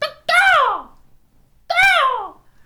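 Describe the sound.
A young boy in bed early in the morning gives two loud, drawn-out cawing calls, each sliding downward in pitch with a short pause between them, imitating a crow.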